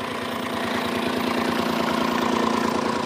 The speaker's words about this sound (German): Wir kommen jetzt mitten im Wald. An eine Baustelle. An einem Bagger vorbei. Mhm. Hier wird irgendwas ausgeschachtet.